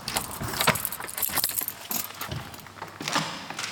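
A bunch of keys jangles and clinks in bright, irregular bursts while a door at a church in Torn parish is being opened, with a few soft clunks of handling underneath and no one talking.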